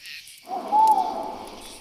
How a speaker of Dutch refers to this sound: Uil! Is dat een vogel? Waarschijnlijk.